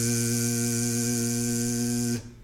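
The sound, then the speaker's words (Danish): A single voice holds a steady buzzing "zzz", a voiced S, while pulling the belly inward, for a little over two seconds, even in loudness, then cuts off abruptly into near silence. “Så du holder fast i den der lyd, men nu stemmer vi S'et, det vil sige, at vi sætter stemme på, så nu skal du gøre det samme med din mave, indad med maven, samtidig med, at du siger zzz,”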